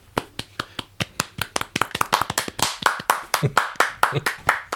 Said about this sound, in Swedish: Kanske en, en applåd för ….